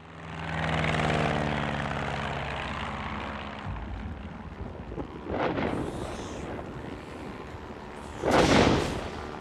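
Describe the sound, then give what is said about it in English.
A propeller aircraft engine drones steadily with a low, buzzing hum as the plane descends, then gives way to a broad rushing roar punctuated by two louder whooshing surges; no one speaks. “I'm taking us down. Over.”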